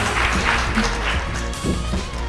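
A live audience at the show Backa framåt live at Scandic Malmö applauds as the host is welcomed, a dense, steady wash of clapping hands at even volume for a couple of seconds, with faint voices mixed into the crowd noise.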